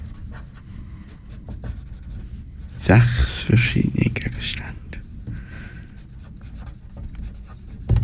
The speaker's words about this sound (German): Äh, hättest du ein Stück Papier, wo ich etwas draufschreiben könnte? Gut, ich schreibe, schreibe da mal etwas auf, was du nicht siehst.